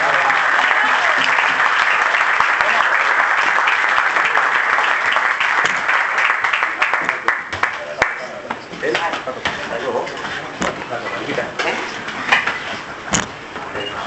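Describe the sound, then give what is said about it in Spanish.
A crowd bursts into sustained applause for gold records, dense and steady for several seconds, then thins into scattered, uneven clapping with a few louder individual claps toward the end. “y de verdad que pido un fuerte aplauso por, por estos discos de oro y por la oportunidad que Muchas gracias.”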